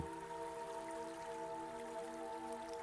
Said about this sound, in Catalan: Escoltes el so de l'aigua que t'aporta una sensació de frescor i de benestar. Observes atentament el fluir de l'aigua en el curs del riu.